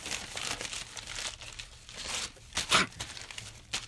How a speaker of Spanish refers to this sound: Ay, ay, no puedo, no puedo envolver mi regalo. Es demasiado rápido y alegre. Se me va de las manos.